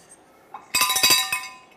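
A small bell rung to mark the start, in a quick burst, about half a dozen bright, high-pitched metallic strikes blurring into a shimmering ring that fades out. No one speaks.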